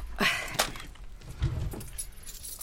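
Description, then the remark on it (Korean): Gate keys jangle in a few quick metallic bursts as a bunch is shaken and handed over from hand to hand, with soft handling noise between the clinks. “아, 네, 대문 열쇠 갖고 나가시라고요? 예, 줘보십시오.”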